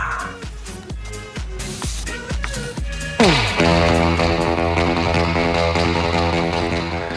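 A pop track plays with a punchy, steady drum beat, then abruptly swells into a louder, denser section of sustained layered instruments. No one speaks.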